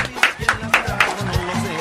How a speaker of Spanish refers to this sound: Mira nada más, un aplauso para ella. ¡Bravo!